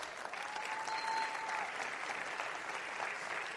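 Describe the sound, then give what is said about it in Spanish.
Sustained applause from an audience for Tim Foley, a dense steady wash of many hands clapping at an even, fairly loud level for the whole stretch, with no voices standing out. “Si lo van a aplaudir, apláudanmelo con ganas, porque él se lo merece.”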